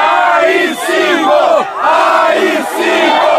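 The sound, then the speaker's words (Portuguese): A large crowd at a 2020 pro-coup demonstration chants a slogan in unison, loud and rhythmic, with repeated rising and falling phrases roughly every second and a brief dip between chant cycles. “E em outra manifestação golpista, só que em 2020, na qual se gritava isso aqui.”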